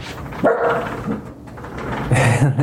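A dog barks in two loud bursts as a guard dog at things it hears outside, the first around half a second in and another near the end, with a low rumbling growl-like tone between them.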